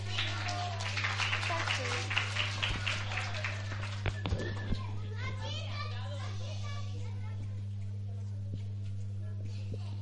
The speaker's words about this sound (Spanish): Le vamos a dar un fuerte aplauso a todos los compañeros que van a animar hoy día.